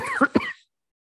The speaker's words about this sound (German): Okay, ich habe jetzt gerade einen Hustenreiz hier.